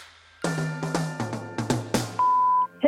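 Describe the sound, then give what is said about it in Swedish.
A quick run of clicky button presses and short tones on a telephone answering machine is followed by a single steady electronic beep lasting about half a second before a message plays, clear, with no talking. “Vi lyssnar av telefonsvararen direkt, tycker jag.”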